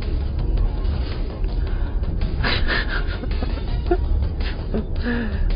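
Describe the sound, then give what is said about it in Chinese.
Train wheels rumble steadily over railway tracks, recorded aboard a train travelling through Russia, a loud, continuous low roar with a few brief rattling surges and no voices. “现在这广播因为在火车上录，所以环境比较嘈杂，铁轨吭哧吭哧的声音比较多，大家见谅啊。”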